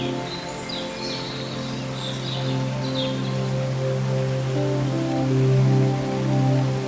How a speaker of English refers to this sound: Take a moment to appreciate the beauty of nature around you, the lush green foliage, the soothing sound of the waterfall, the gentle warmth of the sun filtering through the trees.